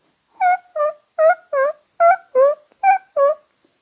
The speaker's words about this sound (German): Habt ihr das auch gehört? Da, wieder. Es klingt wie das Quietschen von meinem Ball